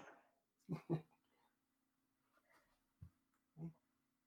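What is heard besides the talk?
dog whimpering and barking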